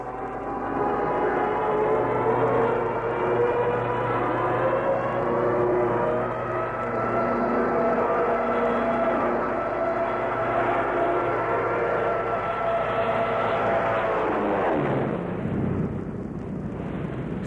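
A propeller aircraft roars loud, its droning engine pitch climbing steadily as it dives steeply straight at the grass, then swooping sharply down as it rushes past and fades away.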